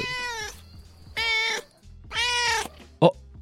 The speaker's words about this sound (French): Attendez, il y, a un chat dans le studio. Oh, minou Mais qu'est-ce que tu fais là T'es trop beau, toi, tu t'es perdu.